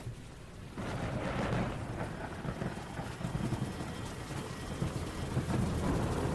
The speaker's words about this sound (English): That night, it rained like nothing anyone had ever seen before. The bridge that you needed to go across to downtown Richmond washed out.